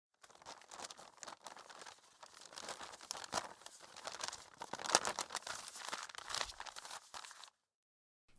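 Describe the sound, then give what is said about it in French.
Stiff paper crackles and crinkles continuously for about seven seconds as a large paper road map is unfolded and shaken open, then the rustling stops abruptly. “Et eh oui, c'était bien une carte routière.”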